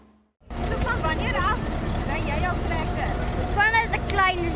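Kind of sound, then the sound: vehicle, small tractor engine running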